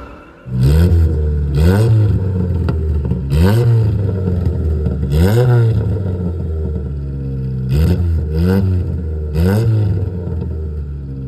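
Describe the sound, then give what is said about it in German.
An Opel Corsa Sprint car engine revs in a series of sharp throttle blips, about six rising surges over a steady loud idle rumble, with no one talking. “Und so klingt es. Der Sound.”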